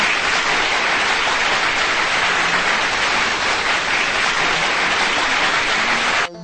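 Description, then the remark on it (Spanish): A crowd claps steadily for about six seconds, a dense, even wash of applause with no voices, cutting off abruptly at the end. “Pido otro aplauso.”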